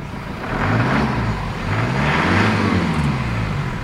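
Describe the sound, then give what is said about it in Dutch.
The diesel engine of a C-Class estate car with an AMG package cranks and catches, then settles into a loud, steady low rumble with a slight rise and fall in revs. No one speaks. “Dit is de laatste C-klasse diesel. In een estate-uitvoering.”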